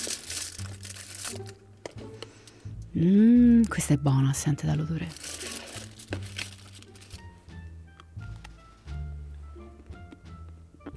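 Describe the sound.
Crinkly rustling of the wrapper of a dark chocolate and orange bar being peeled open, in short bursts, with a person murmuring and speaking over it.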